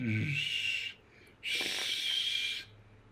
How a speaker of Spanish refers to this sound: Chiflido despampanante, güey.